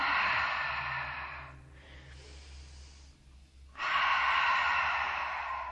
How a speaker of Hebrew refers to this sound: אנחנו עוד שלוש נשימות כאן, שאיפה מהאף, נשיפה מהגרון.